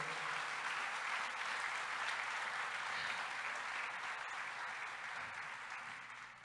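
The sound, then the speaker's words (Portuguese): A large crowd applauds Jesus steadily, a dense wash of many hands clapping at once that holds strong throughout and eases off slightly near the end, with no one speaking over it. “Você pode aplaudir Jesus para valer?”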